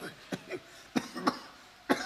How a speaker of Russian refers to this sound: Старик все кашлял, ворочался, шептал в ночи молитвы.